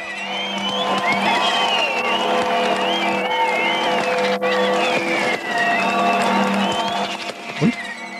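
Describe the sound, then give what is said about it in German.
A huge crowd celebrating German reunification on 3 October 1990, a dense, unbroken roar of many voices with wavering whistle- and horn-like tones rising above it, loud and steady for the whole stretch. “Ganz genau, so klingt der Moment der Wiedervereinigung, 3. Oktober 1990.”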